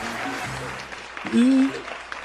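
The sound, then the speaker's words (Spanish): Steady audience applause on the live interview show Conociendo al que inventa, welcoming the inventor guest, fills the whole stretch, a dense crackle of many hands clapping at once, with a brief voiced cheer or shout rising over it partway through. “Por favor, reciban con un fuerte aplauso al inventor.”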